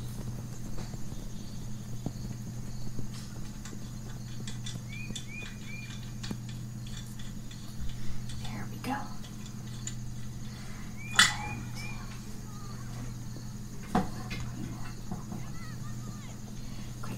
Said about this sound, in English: okay, so I'm gonna destring the bow now uh, while I talk you through the arrow.